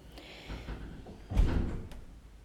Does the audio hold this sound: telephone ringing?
no